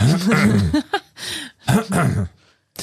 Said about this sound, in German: ich habe letztens äh, mit Erschrecken festgestellt, dass ich mich wie mein Vater räuspere.